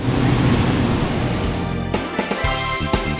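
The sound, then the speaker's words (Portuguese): A steady, loud industrial roar from a cement kiln at the heart of a Votorantim Cimentos factory, broad and rushing like heavy wind, with a few brief clanks and knocks near the end. “Esse som é o som do forno de cimento.”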